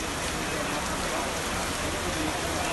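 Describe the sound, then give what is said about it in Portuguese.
Heavy rain pours down steadily on a highway in Paraná, where landslides halted work, in a dense, continuous hiss, loud, with drops pattering on surfaces throughout before cutting off abruptly at the end. “As equipes que trabalham na rodovia conseguiram tirar terra de uma das faixas, mas a chuva voltou com força.”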